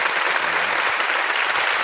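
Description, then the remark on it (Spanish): A studio audience applauds for a film premiering this Friday, a dense, even wash of many hands clapping at full volume throughout, with no voices rising above it. “Se ha un aplauso, se ha un aplauso.”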